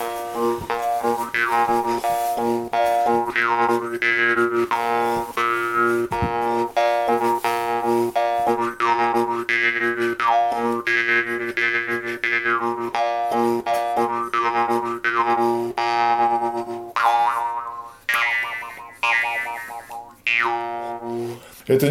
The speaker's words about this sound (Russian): У меня есть варган, тогда я где-то сыграю на варгане.